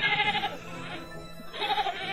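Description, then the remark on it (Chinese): A sheep bleats twice, each call a loud, quavering, nasal 'baa' lasting about half a second, separated by a brief, quieter gap. No voices are heard. “我是一只绵羊。”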